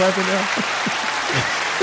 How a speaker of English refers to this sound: clapping now? you forgot all about that. He got a soundboard know what to do.